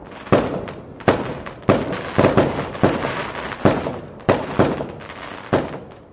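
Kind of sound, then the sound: sound effect, fireworks exploding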